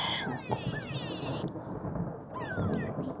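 A bird calls in a few clear, warbling, pitch-sliding phrases over a steady low rumble of background noise.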